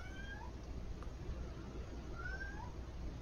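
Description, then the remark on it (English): A cat meows twice, a few seconds apart, each a short rising cry. The meows are faint over a steady background hiss, with no talking. “A cat sounds like to me.”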